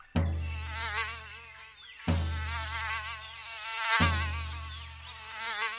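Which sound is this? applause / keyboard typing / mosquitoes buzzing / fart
mosquitoes buzzing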